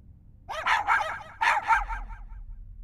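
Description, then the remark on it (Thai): Four high-pitched, puppy-like yips and barks made by children at a birthday party arrive in two quick pairs, fairly loud, over a faint low background rumble with no talking. “ท่าทางของเด็กๆ เหมือนไม่ได้ตั้งใจฟังสิ่งที่ผมพูดสักคน แถมยังทำเสียงคล้ายเสียงลูกหมาไม่หยุด จนผมเริ่มรู้สึกหงุดหงิด”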